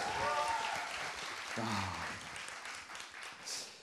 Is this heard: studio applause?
yes